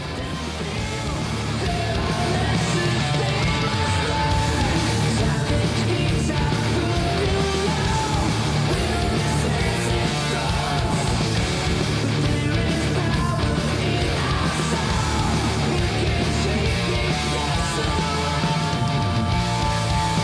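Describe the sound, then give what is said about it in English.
Loud, dense epic doom heavy metal by a Philadelphia band formed in 2013 fills the whole stretch: thick distorted guitars, pounding drums and a soaring, yelled vocal carry a slow, epic doom feel at constant high volume. “All right, folks, are you ready to just get blown away by some super awesome, deep, mythic heavy metal, well, I got it for you.”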